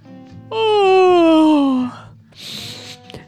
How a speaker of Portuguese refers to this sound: Ai. O que vovó colocou nesse chá, hein? Por que não paro? Por que não paro de bocejar? Nem são cinco da tarde.